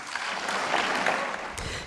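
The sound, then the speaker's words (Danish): A crowd applauds after Ursula von der Leyen announces an anti-subsidy investigation into electric vehicles coming from China, a dense, steady wash of many hands clapping at an even loudness throughout, with no voices over it. “Ja, så sluttede det lige af med klapsalver.”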